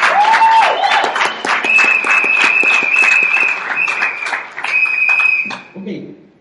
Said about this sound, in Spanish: Pido un fuerte aplauso para ella.